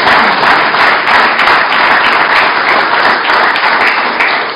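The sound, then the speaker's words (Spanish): A church audience claps in praise of God during a sermon, many hands blending into a loud, dense wash of applause that holds for several seconds with little variation before easing slightly at the end. “Dele palmas al que vive y reina por los siglos de los siglos.”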